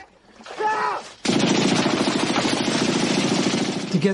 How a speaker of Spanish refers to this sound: Disparan las balas y arrancan parte de la vegetación, las hojas de las palmeras y todo eso. Usaron balas de verdad esa noche.